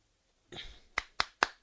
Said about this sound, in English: hand clap.